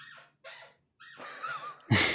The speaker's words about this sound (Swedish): en stol som squeakar varje gång han eh, rör sig? Ja. Wee, wee.